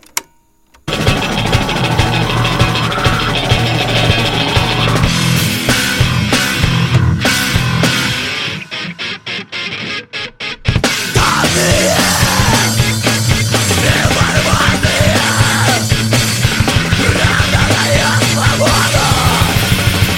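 A loud metal song recording from 2003 with dense, distorted guitars and shouted vocals. The music drops to a sparser, quieter passage partway through, then crashes back in at full force.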